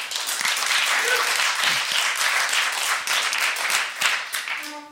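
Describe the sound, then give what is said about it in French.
A crowd applauds steadily for several seconds for the pianist who accompanied the evening, a dense, loud wash of many hands clapping, with a few faint voices and a brief tonal note near the end. “Je vous demande d'applaudir évidemment Philippe Prudhomme, pianiste prodige qui nous a accompagnés ce soir.”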